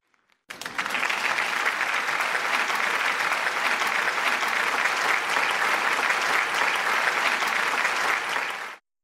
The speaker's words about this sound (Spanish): Creo que también ah, merece un aplauso a nuestro equipo de edición en Ámsterdam